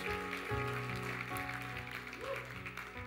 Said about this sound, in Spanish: Alguien que le pueda glorificar con un fuerte aplauso. Alguien que pueda exaltar el nombre de Dios.